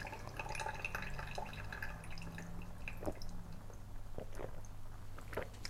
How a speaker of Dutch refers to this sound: Ik ga koud water in mijn eh, hete koffie doen. Heel veel. En dan kan ik drinken.